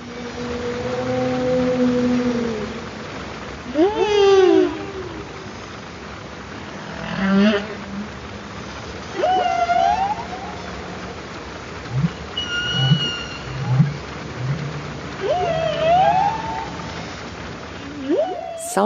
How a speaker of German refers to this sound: Na dann lass uns doch zum Schluss noch einmal einen Wal genießen. In Ordnung. Wie wär's denn mit diesem Buckelwal? Aufgenommen 2017 vom Monterey Bay Aquarium Research Institute nahe der Küste Kaliforniens.